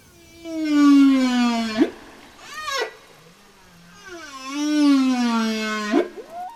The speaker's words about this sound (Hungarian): mert hogy a tudományos projektnek az a célja, hogy megfejtsék a bálnák beszédét, vagy mondják egyesek úgy is, hogy a bálnák énekét.